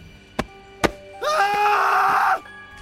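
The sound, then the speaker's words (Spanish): Two sharp, heavy blows land in quick succession, followed by a loud, strained scream that holds for about a second before cutting off, as in a violent struggle between two men. “Forcejeos, golpes, gritos.”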